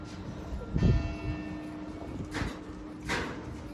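The bell of the Saint-Hubert chapel at a royal château overlooking the Loire in France is struck once, heavy, its metallic tone humming on and fading slowly while a couple of dull knocks and shuffles sound in the background.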